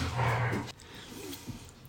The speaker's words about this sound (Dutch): gaat nu een gevecht beginnen tussen twee honden hier naast ons.